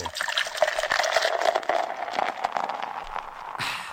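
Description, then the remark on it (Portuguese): Beer pours steadily from one of three opened bottles for about four seconds, a bright fizzing gurgle with a faint tone that rises slightly as the glass fills, then it tapers off. No one speaks. “E para deixar a quarta com cara de sexta, abra três pra gente aí”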